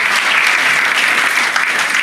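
Steady, loud applause from an audience, a dense wash of many hands clapping continuously with no pauses and no voices standing out.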